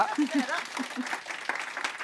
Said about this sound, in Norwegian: men dere kan få en applaus to ganger.